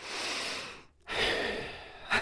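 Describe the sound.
A voice imitates heavy, snorting breathing like a snorting bull: a long forceful breath out, a brief pause, then another harsh rushing breath ending in a short snort, loud.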